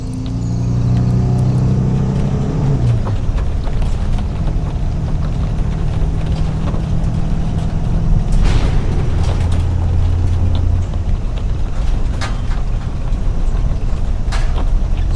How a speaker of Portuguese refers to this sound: Está chovendo muito. E tem muita lama na estrada. Droga, eu, eu, vou, eu vou, procurar um lugar para estacionar. Ai, essa Kombi chacoalha muito, Sérgio. As compras vão cair.